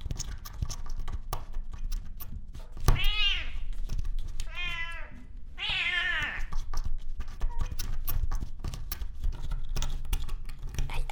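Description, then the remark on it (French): A cat meows three times in quick succession, loud, the drawn-out cries rising and falling over a backdrop of scattered clicks and tapping noises. “Aïe, aïe, ne mords pas. Aïe. aïe. Doucement, doucement, douce, douce. Putain de chat.”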